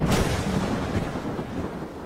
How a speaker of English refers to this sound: So, on a personal level, I get really excited about thunderstorms, and so for me it's a good thing.